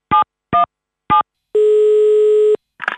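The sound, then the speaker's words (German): Three short electronic beeps at an even pace, then a steady telephone dial tone lasting about a second, ending in a brief crackle as the line connects, as a call is placed to a guest on the phone in a car. No voices are heard. “Los, ruft ihn an.”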